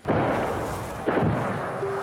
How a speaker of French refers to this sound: Il y a eu des coups de feu hein.